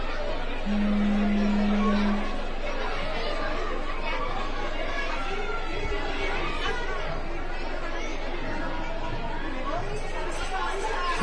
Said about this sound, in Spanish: pues ya escuchamos ese sonido de los niños y niñas, alumnos y alumnas de María Inmaculada.